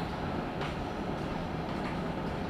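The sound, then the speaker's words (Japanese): Steady, low hum inside a stationary train carriage waiting at a station in Japan before its departure at 24 minutes past the hour. The idling engine or ventilation drones evenly at a moderate, unchanging level, with no voices. “この列車は24分の発車です。発車までしばらくお待ちください。”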